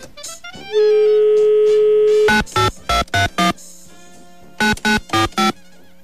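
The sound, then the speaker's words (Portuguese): A steady electronic tone holds for over a second, then a phone rings in short, loud, buzzy bursts, two clusters of rapid pulses separated by a brief pause, with no voices: an outgoing call to the first judge of a karaoke contest on Band Coruja. “Eu vou te ligar no karaokê, viu, cara? vou te ligar. Deixa eu ligar já pro primeiro, vai?”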